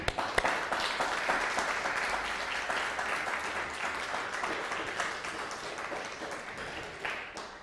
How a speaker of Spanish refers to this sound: Si ese aplauso fue para la comunidad, está muy bien. Si este aplauso fue para la comunidad mundial, está muy bien, pero vamos a levantar una fuerte ovación para el Eterno.